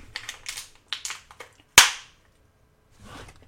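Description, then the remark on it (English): A plastic toothbrush snaps in half with one sharp, loud crack that rings out briefly, preceded by a series of small plastic clicks and creaks, then near silence. “Did you snap my toothbrush in half?”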